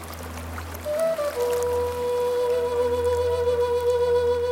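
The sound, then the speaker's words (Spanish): Water of the Anzu River flows past the community of Gavilán del Anzu, Pastaza province, in the Ecuadorian Amazon, with a steady, continuous rushing hiss, even in loudness, while thin sustained tones hum over it. No one speaks. “Estamos a orillas del río Anzu, en la comunidad Gavilán del Anzu, en la provincia de Pastaza de la Amazonía ecuatoriana.”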